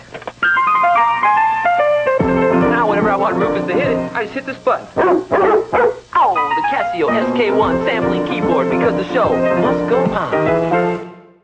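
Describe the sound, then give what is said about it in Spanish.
Barks of Rufus the dog, sampled on a Casio SK1 keyboard and played at different pitches: first a quick descending run of notes, then a dense, rhythmic stream of loud barking tones forming a tune. “But with this Casio, I can record a sample of him whenever he's in the mood.”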